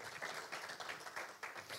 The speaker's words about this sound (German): Ich glaube, er verdient einen fetten Applaus.